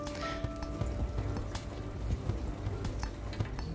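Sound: dishwasher running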